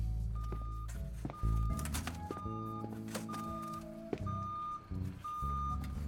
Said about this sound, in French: C'est ton alarme qui sonne Hein Non, c'est le semi-remorque qui se gare. Le quoi bah, La livraison des livres pour les auteurs.